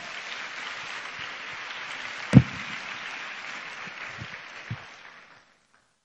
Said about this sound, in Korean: 우리 큰 박수로 목사님 환영하도록 하겠습니다.